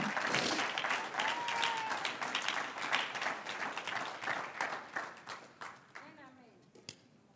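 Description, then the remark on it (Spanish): An audience applauds for the Lord during a church service, sustained crowd clapping, gradually thinning out toward the end as a voice begins to speak over it. “Vamos a darle un aplauso al Señor.”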